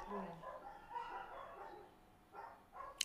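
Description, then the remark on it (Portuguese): Several dogs bark at cats, their overlapping yaps and woofs coming in uneven bursts, with sharper barks near the end and no one speaking. “agora os cães decidiram ladrar todos.”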